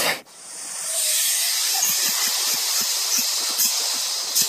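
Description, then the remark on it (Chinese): A voice imitates wind as vocal percussion (VP) with a loud, steady, breathy hiss that holds for about four seconds, with faint soft low pulses ticking underneath. “相较于可能我们看到一些 B-box 来说，VP 它会有一些呃，也有一些很层次性的东西，比如说可能像是呃风声是。”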